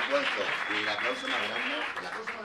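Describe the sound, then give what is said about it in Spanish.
An audience applauds steadily throughout, a dense wash of many hands clapping at an even level, with voices talking and calling out over it. “Y el aplauso más grande, ¡ay, marica, para ella!”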